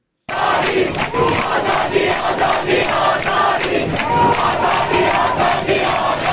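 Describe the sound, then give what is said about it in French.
A large crowd of male and female students of Sharif University in Tehran chants together in unison inside the university restaurant, voices loud and dense with a steady rhythmic pulse, without pause. “Hier, il y a des étudiants, garçons et filles de l'université Sharif de Téhéran qui ont réussi à pénétrer euh, ensemble dans le restaurant de la fac, euh, qui habituellement est interdit à la mixité.”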